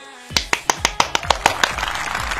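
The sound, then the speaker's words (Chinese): A quick burst of hand clapping by a person applauding themselves, about ten sharp claps in a steady rhythm that blur into a denser patter toward the end, with no voices. “突然发现做个节目好心酸，掌声还要自带。”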